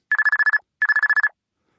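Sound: telephone ringing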